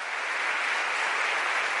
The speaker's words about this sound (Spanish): Aleluya, le damos un aplauso fuerte al que vive, esa es la idea.